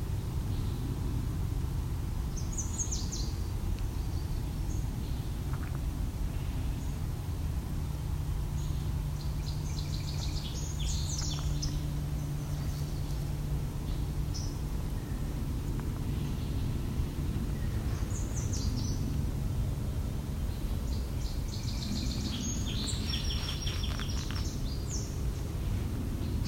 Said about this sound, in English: a lot of variations on the yellow warbler call here. It's late in the season. I don't know if it's a young one learning a new call, older ones trying out new calls, new songs.